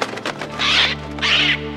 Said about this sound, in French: Tu as reconnu oui, c'est un perroquet.